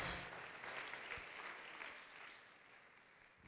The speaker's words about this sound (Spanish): Denle un aplauso para animarlo y comenzamos.